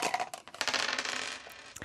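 Dice are rolled across a hard table surface in a dice game, a quick burst of rattling clicks that settles into a few lighter taps, moderately loud with no talking.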